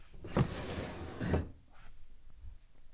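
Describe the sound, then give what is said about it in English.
A heavy drawer full of journals slides with a rough, rumbling scrape for about a second, starting with a knock and ending with a solid thud. It is fairly loud, followed by faint shuffling. “And the heaviest of all, the one that holds all the journals that I wrote when I was in Rome.”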